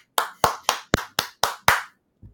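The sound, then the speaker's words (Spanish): A short burst of applause welcoming the guest Pablo Magno: about seven sharp, evenly spaced claps in a steady rhythm, fairly loud, then a faint final tap. No one speaks. “No, él es el que tiene la bola de cristal más aceitada de todos nosotros y yo quiero recibirlo con un fuerte paso.”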